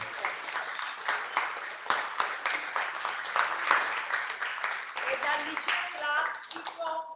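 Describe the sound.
Steady, dense applause with many hands clapping continuously for several seconds at a fairly even loudness, while faint voices rise through it toward the end.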